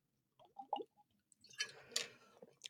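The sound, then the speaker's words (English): Quiet swallowing sounds as someone drinks water from a plastic bottle in New York City, a few wet gulps followed by breathy, rustling exhales and a faint crinkle of plastic, with no talking. “I'll, I'll, break the fourth wall here as I enjoy this water.”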